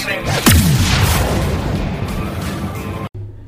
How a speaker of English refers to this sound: I think because the plane's flying over or whatever.